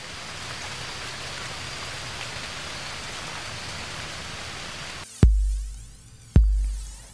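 Steady, hissing rainfall pours down evenly for about five seconds, then two loud, resonant struck tones ring out a second apart and slowly fade.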